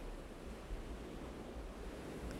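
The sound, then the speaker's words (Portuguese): Hot shower water runs in a steady, continuous hiss, an even rushing spray that never pauses. It's fairly soft and has no voices over it. “A água quente fluindo por todo o corpo te leva a um estado completamente diferente”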